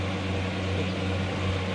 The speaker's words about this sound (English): And that cold air coming through my helmet is from an old vacuum cleaner I stick outside and sucks in cold air.